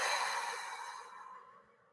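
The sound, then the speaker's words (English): A long, deep exhale of breath during a guided breathing exercise, airy and breathy, starting strong and slowly fading out over about two seconds, with no talking. “Thank you for sacred breath, for breathing. Inhale, inhale, inhale. Exhale”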